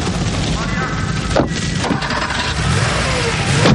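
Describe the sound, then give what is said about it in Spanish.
A car engine turns over and catches, then settles into a steady, rising rumble as the car pulls away, with a couple of brief knocks along the way. “El hombre oscuro conduce camino de la gran mansión, la Casa Azul.”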